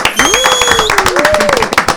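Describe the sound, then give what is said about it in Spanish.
A TV studio audience applauds to welcome dancer, actress and presenter Nasla Bogar, a loud, dense patter of many hands clapping that fills the whole moment, while a voice calls out in a drawn-out, rising tone over the clapping. “Y ahora eh, vamos a recibirla con un aplauso. ¡Bravo!”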